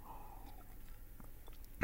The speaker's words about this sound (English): Well, I better take a sip of water before we get started here this morning